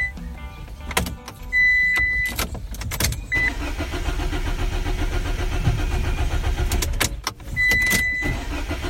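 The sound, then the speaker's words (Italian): A car engine cranks repeatedly without catching on a Monday, with a whining starter and brief pauses between attempts. The grinding is fairly loud, and no one speaks. “il mio lunedì e solo il lunedì inizia con la macchina che non parte.”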